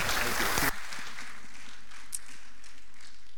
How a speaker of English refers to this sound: Thank you guys very much. A round of applause again for these.